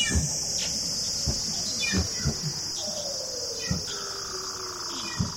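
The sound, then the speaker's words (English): A seal's trill call: long, smoothly descending whistled tones glide downward over a steady high hiss, punctuated by scattered sharp clicks and thumps, with no voices. “And uh, the calls are also used like that trill call It's thought that it's used to sort of defend the area against other males.”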